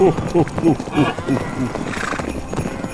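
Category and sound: animal, horses trotting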